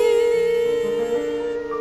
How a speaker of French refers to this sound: Vous avez certainement reconnu le thème de la souris verte qu'a personnifié la comédienne Louisette Dussault, décédée récemment à l'âge de 82 euh, ans.